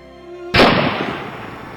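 gunshot

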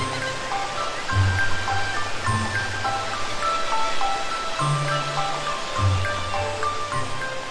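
waterfall

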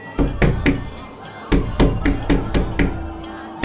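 knocking on glass

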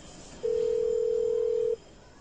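telephone dialing tones

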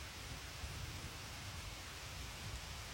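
heavy rain pouring

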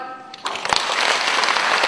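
applause

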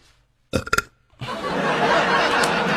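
burping

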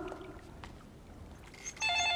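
telephone ringing

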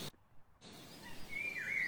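sparrows chirping in woods

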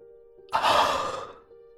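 yawning

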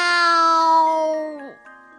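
cat meowing

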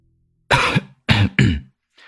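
man coughing several times

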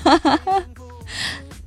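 yawn

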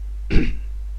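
throat clearing

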